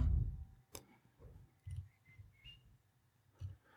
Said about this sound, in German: Ich klicke hier mal eben meinen Blog auf denn dort habe ich einen Countdown stehen. Hm, Sekunde.